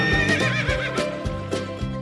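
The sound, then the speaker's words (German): A horse neighs loudly, a long quavering whinny with a rapid wavering pitch, while steady hoof clops beat underneath at a regular pace. “Ja, da freut sich das Pferd im Stall.”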